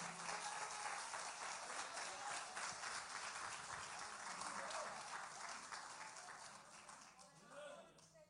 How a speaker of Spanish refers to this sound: De un aplauso fuerte al Eterno, que Él vive para siempre.